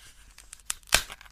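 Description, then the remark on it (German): A rubbery glue dot being peeled off a magazine page, with faint crackly pulling that ends in one sharp pop. No one speaks. “Das sind Aber, diese Popelkleber, die man so schön rollen kann.”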